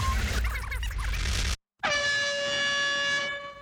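A loud, sustained air horn blast with a bright, steady tone blares for almost two seconds, right after a burst of dense noise and a brief moment of silence.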